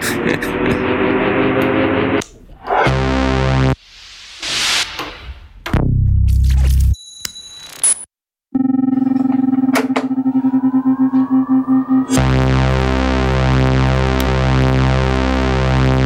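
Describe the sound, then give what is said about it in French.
A run of Roland SH-2 synthesizer demo sounds, played from a YouTube video comparing the real SH-2 with the System-1 plug-out: buzzy harmonic tones, noisy whooshing bursts, a downward sweep, a brief silence, then a rising drone and a loud, steadily pulsing tone. No voices. “Je vous fais une petite démo du SH2.”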